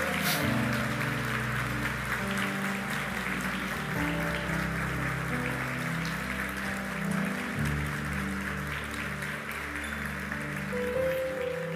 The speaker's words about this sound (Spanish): Le damos un aplauso, pueden tomar asiento.